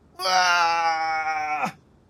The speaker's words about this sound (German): Er drückt die baufällige, also, also sehr lockere Tür nach innen und hört von ihnen so Schreie einer Frau.